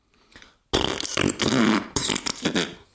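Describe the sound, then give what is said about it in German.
A loud, sputtering raspberry blown with the lips, imitating a fart, lasting a couple of seconds with a brief pause midway, after a quiet start. “Nur mit dem Mund. Ich habe nicht wirklich gepupst.”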